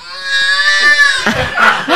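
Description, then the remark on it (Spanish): A person mimics a baby's cry, a long wavering wail that breaks into choppy, sobbing bursts, loud with no other voices. “Échate un llorido de bebé.”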